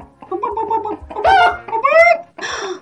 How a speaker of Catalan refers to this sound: encara estan passant gallines